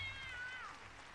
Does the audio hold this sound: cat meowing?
yes